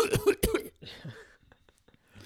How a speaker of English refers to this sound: Isn't it fun to go out in public and cough? Yeah. and have people look at you now?